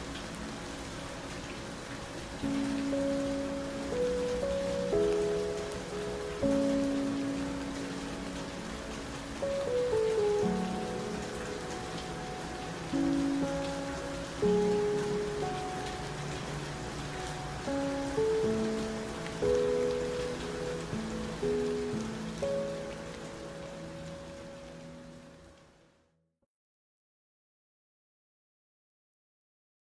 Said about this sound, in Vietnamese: gió thì thầm qua tán cây trời bắt đầu đổ mưa